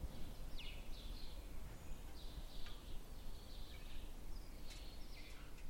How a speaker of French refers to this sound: C'est un paysage sonore particulier dans lequel on ne se rend même plus compte que le chant des oiseaux, aussi agréable et paisible soit-il, est rythmé par cette camionnette qui passe.